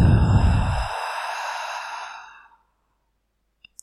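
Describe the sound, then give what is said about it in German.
A single long, breathy exhale through the mouth after a deep breath in through the nose, fairly loud, fading out over about two seconds, followed by silence and a couple of faint clicks. “Und atme dreimal tief durch, durch die Nase ein und geräuschvoll durch den Mund wieder aus.”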